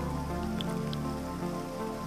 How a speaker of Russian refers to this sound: Я люблю шум дождя, он в коморке под крышей, теплой ночью июльской, особенно слышен. Он над дачным поселком царит полновластно, все другие шумы загасив беспристрастно.